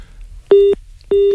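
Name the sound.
telephone busy tone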